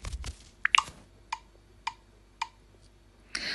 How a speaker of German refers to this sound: Erst wenn dieses Klick, Klick, Klick vorbei ist, nimmt es tatsächlich auf.